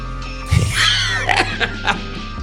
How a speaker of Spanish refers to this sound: Perdón la tos.